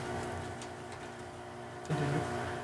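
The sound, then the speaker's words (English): A home furnace kicks on: a steady low mechanical hum with faint ticking, then a sudden louder rumble and whoosh swells in near the end, with no talking. “and the furnace interrupts us.”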